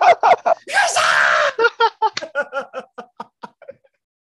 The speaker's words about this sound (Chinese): 老师，我我刚刚嘶吼一下。